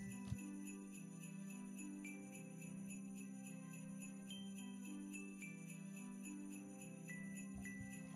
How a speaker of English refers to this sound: All right, soft Christmas music in the background.